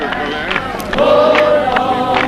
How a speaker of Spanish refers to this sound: Mira, mira, mira cómo canta la gente, ¿no? Bueno, a pesar de la cantidad de gente que hay aquí,